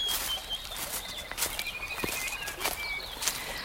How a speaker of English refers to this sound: The sun begins to lighten the forest, one of the richest in ecological diversity in Canterbury, of silver, red, and mountain beech, plus all kinds of birds, like the yellowhead, and one that I sing with now, the cuckoo.